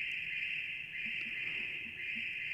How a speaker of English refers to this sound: Sounds like crickets on a summer night, doesn't it? Or froggies? It does. It sounds like. Like you're out in the country and there's a little froggies.